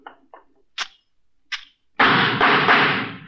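gunshots

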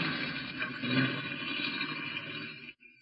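car driving off

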